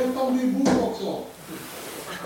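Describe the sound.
A single sharp knock on a window pane lands abruptly in the middle of a voice, fairly loud, with murmured talk continuing faintly afterward.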